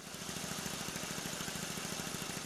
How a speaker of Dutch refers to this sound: Ja, en nog aan de andere kant liggen maisvelden en bruine akkers waarop landbouwmachines rijden.